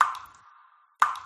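Two separate water drops from a leaking shower plink into water about a second apart, each a resonant plop that rings briefly and fades into quiet.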